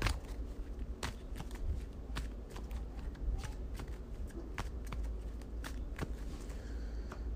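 A pile of cards being shuffled during a card game, with a steady run of crisp riffling snaps and flicks over several seconds, no voices present.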